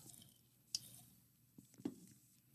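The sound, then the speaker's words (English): Someone sips a fruit drink: quiet wet mouth sounds with two distinct clicks or gulps about a second apart, with no talking. “Mm, big sip of soda. Well, a fruit drink.”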